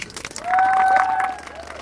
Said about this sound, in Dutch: Graag wil ik een hartelijk applaus voor Paul van Loon.